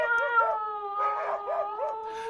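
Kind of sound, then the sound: animal, dog barking and growling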